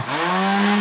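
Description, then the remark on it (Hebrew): A blender motor runs at a steady, loud whir, a constant high-pitched electric drone with a grinding buzz that holds evenly for under a second, with no voices. “נכון, זה רעש של בלנדר, זה מה שיהיה פה”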